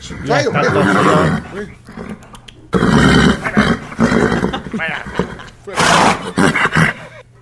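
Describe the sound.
A voice imitates a horse's neigh with loud, wavering whinny-like cries, repeated in several bursts that sound rough and roaring at times.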